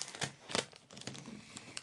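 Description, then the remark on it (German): Sticky tape is peeled in a long strip from a roll and formed into a loop to stick a sheet of paper, a timetable, in place, giving crackly, crinkling rips and rustles in several irregular bursts, fairly quiet with no voices. “Der muss jetzt halt nicht so lang sein, einen langen Strahl wieder äh, vom Klebeband nehmen. Und dann so eine Schlaufe bilden.”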